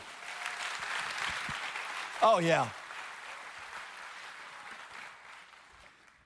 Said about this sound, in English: I know you've clapped a lot, but one more time, thank God for his word.